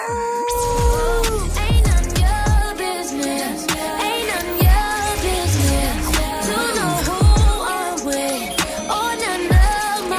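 A loud, busy electronic music track plays continuously, with sweeping synth tones, sliding pitches and repeated deep bass hits, and no talking over it.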